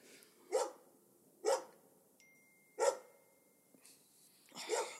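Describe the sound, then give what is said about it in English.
A dog barks four times in short, sharp bursts spaced about a second apart, clear, with quiet pauses between the barks and no talking. “this dog.”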